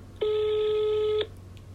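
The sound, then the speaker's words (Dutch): A single steady electronic ringback tone, the burr of an outgoing phone call ringing, lasts about a second against a low background hum, then stops. “Maar ik hoor hem eh, overgaan. Hij gaat over.”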